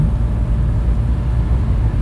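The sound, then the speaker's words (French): A steady, deep rumble of a car cruising at speed on a motorway, with constant road and engine noise filling the background and no voices. “J'étais excitée mais je n'emmenais pas large dans sa voiture sur l'autoroute.”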